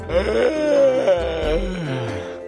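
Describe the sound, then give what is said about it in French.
A dog's drawn-out yawn as it falls asleep, with a whiny, moaning pitch that rises and falls over a couple of seconds, fairly loud, with no talking. “ça y est, il baille, il s'est endormi.”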